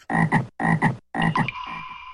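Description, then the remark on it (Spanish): A frog croaks three times in quick succession, each call a loud, raspy double pulse with short silent gaps between, the last trailing off into a thin, sustained tonal ring. No one speaks. “Ancas de rana intrépida.”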